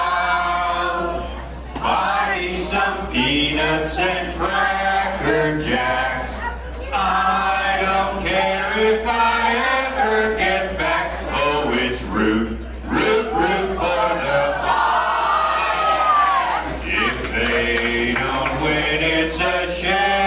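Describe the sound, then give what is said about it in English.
A large crowd at a baseball game sings "Take Me Out to the Ball Game" together for the seventh-inning stretch, held two innings early, many voices blending into a loud, steady melody that carries on for about twenty seconds. “Well, we'll sing it. Take me out of the ball game.”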